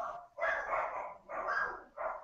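Dogs bark repeatedly in three sustained bursts with short gaps between them, fairly loud and close, with no talking over them.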